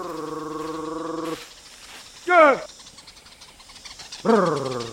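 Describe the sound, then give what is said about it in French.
Yao honey hunters' call to honeyguide birds: a held, buzzing trilled vocal tone, then after a pause two short, loud upward-swooping voiced calls, with quiet outdoor background. “Et voici l'appel des chasseurs de miel Yao.”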